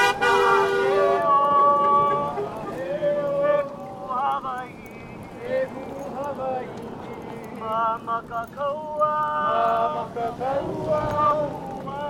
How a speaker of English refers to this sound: Cars passing by honked in support.